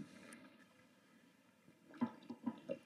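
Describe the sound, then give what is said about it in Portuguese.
Mineral water is poured into a glass: a soft, steady trickle at first, then a few quick gurgling glugs near the end. Fairly quiet, with no talking. “Essa água é bem Salgadinho, põe aqui.”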